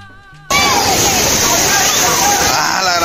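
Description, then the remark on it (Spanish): A brief tonal snippet cuts abruptly to the loud, steady roar of a rushing, flooded river running practically into the street, continuous with churning, sloshing water as a person jumps into the current, with no clear splash standing out. “tiró a la corriente de, del, del río que prácticamente estaba en la calle y escucha lo que pasó,”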